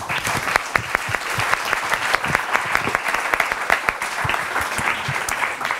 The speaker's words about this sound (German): Ich danke auf jeden Fall sehr herzlich äh, meinen Panel-Teilnehmern und bitte Sie alle nochmal um eine Runde Applaus für die wunderbare Diskussion.